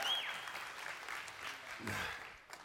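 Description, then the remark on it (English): An audience applauding in a steady wash of clapping that holds for a few seconds, moderately loud, with no talking over it. “We're going to edit the recording so it sounds like you're clapping for me.”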